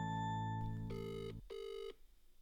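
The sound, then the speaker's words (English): A phone line rings on an outgoing call: two short electronic ringback bursts in quick succession, clear, over a steady low tone that drops away before the second ring. “I think I think we should end this on a ring around.”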